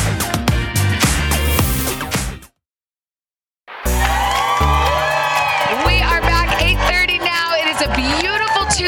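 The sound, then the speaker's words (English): A TV show's live crowd on an outdoor plaza on a gorgeous Tuesday morning cheers and whoops with excited shouts over loud, steady music. The sound cuts out for about a second before the cheering and music return at full volume. “Tuesday morning, and what a gorgeous day out on our plaza. Gorgeous crowd, lots of smiles.”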